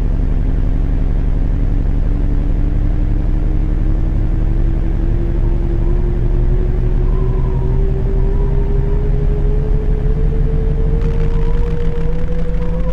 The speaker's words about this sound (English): Listen to the sounds of the running train.